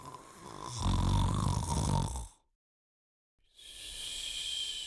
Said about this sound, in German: Dann legte er sich nieder, und als er ein Weilchen gelegen hatte, fing er an zu schnarchen wie im tiefsten Schlaf.